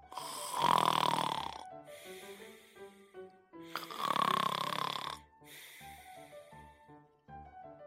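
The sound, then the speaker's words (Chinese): Two loud, rasping snores of a wombat going to sleep in a reading of the picture book Diary of a Wombat, each lasting about a second, separated by a soft melodic tinkling that continues quietly after the second snore. “我挖，我挖，我挖，挖挖，然后就是睡觉觉。”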